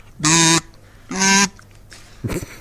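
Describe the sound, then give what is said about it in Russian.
Two loud, buzzing quacks from a duck call with a buzzing paper reed in the middle, each about a third of a second with a short gap between, followed by a fainter, rougher squawk at the end. “Это, это монок для уток.”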